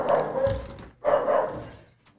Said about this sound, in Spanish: se pone a ladrar, pues cualquier perro, este, ese pobrecito.